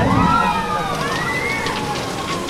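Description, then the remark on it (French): An amusement ride rushes past overhead with a steady, loud roaring whoosh. Gliding high-pitched squeals ride over it, and people can be heard talking throughout. “Ça, c'est quoi qui vient de passer au-dessus de notre tête Alors, c'est justement c'est l'attraction Arthur”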